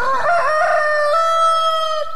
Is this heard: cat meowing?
no